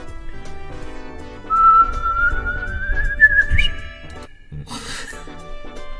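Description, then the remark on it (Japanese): Someone whistles an imitation of a lesser cuckoo's call, a single rising, sliding whistle note that climbs steadily in pitch, with faint background sounds and no talking. “じゃあ、あとホトトギスいっとくじゃん。”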